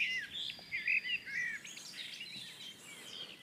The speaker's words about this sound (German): Und jetzt die Gartengrasmücke halt eben.